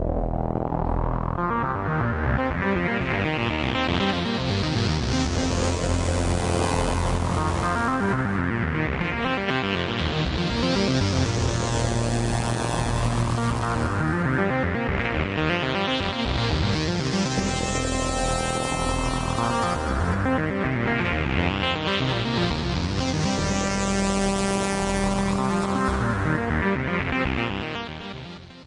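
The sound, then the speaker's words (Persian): Algorithmic computer-generated music, the opening theme of a programme, plays steadily and loudly with no voices. It is made by a simple computer program using a live loop system, with random changes applied while the loop runs. Dense droning tones and a rising sweep repeat in a loop every six or seven seconds. “بله شروع برنامه اون موزیک زده موسیقی الگوریتمیک بود موسیقی که نبود با دست نزدم برنامه کامپیوتری بود که اون صدا رو ایجاد کرد”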